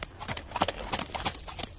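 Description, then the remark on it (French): Horse hooves clip-clop in a steady, rhythmic patter of sharp knocks, moderately loud, with no voices over them: residents riding horses in a gated community on Long Island, New York. “Ah, fait que tu te promènes, ses voisins se promenaient sur des chevaux.”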